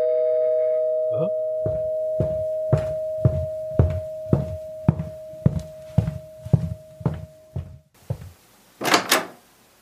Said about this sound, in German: Oh, es klingelt.